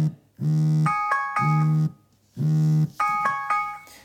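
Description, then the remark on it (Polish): A smartphone alarm goes off with vibration in a repeating pattern: a low, buzzy vibration drone followed by bright electronic chime tones, cycling twice, loud with no talking. “A tymczasem włączy nam się alarm o yy, 50. Jak słychać są wibracje.”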